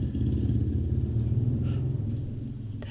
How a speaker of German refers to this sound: Jetzt fährt da gerade ein sehr, sehr dickes Motorrad vorbei. Lassen wir das mal kurz vorbeifahren.